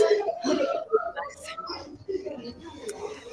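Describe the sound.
A person shouts in the background of a coffee shop, a raised, strained voice carrying over a few seconds, with bursts of vocal sound over a murky backdrop of ambient noise and faint chatter.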